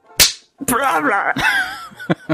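A sharp slap on the back of a choking person rings out, followed by strained, wavering gagging noises, with several more quick pats on the back landing in between and near the end.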